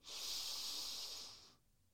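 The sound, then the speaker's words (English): One long, slow, deep belly breath, a steady airy rush that holds for about a second and a half before cutting off into quiet. No one speaks. “So breathing in, feeling that belly expand and then breathing out.”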